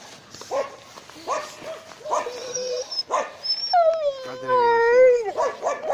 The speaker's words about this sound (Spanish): Hay perro culiado, cállate, weón.